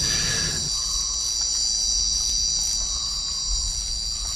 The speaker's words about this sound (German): Also eben der Regenwald hat natürlich eine ganz andere Ökologie als unsere Wälder. Ähm, das ist eine 24-Stunden-Soundscape. Dort ist es nie still. In der Nacht ist es eher noch lauter als am Tag.